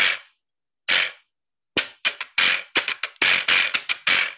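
A percussion instrument from a horse or donkey, with teeth that can be scraped or struck, is struck with a pen: two sharp, bright hits spaced apart, then a quick, uneven flurry of loud clacking strikes with a brief rattling buzz. No one speaks.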